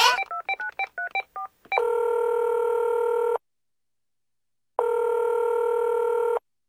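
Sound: telephone number being dialed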